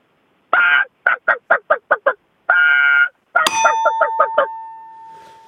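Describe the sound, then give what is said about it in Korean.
A voice imitates a wild Brazilian chicken with loud, nasal squawks: one long squawk, a quick run of short clucking honks, another long squawk, then more short calls as a bright bell dings over them. “어, 야생 브라질 닭.”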